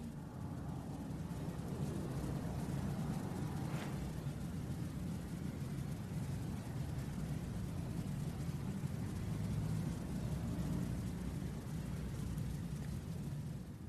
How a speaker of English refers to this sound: And it also can be resting on a sound we're hearing. Sort of like, oh yeah, that, that truck, you could hear the car, and then the sound fades away, and you can kind of rest into that space too.